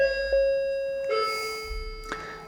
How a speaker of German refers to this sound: Kling, kling, kling. Ihr hört gerade ein ähm, kleines Klingeln im Hintergrund. Jetzt kommt nach mehrfacher Absprache der Telekom-Techniker.